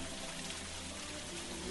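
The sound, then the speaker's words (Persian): Steady rainfall mixed with gently trickling water, a continuous soft wash of noise with no distinct drops standing out, fairly quiet throughout. “ما الان در یک از باغهای بارانی لورین حضور داریم در حد فاصل رودخانه گلادن و جنگل فنگو”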